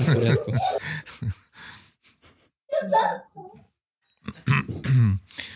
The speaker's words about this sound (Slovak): Sekundičku, lebo deti ma tu vyrušujú.